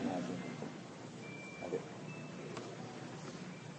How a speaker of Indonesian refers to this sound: Ini ada HP bunyi di sana.